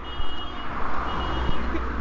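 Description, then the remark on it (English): A car alarm, set off as people were walking past, beeps in a steady, repeating high tone, fairly loud, over a low rumbling outdoor background with no one talking. “the aforementioned Harley had set off a car alarm as we were walking, so there'll be some beeping for a few seconds.”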